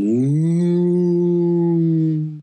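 A single long, loud cow moo, a steady low harmonic drone lasting about two seconds before cutting off, with no talking.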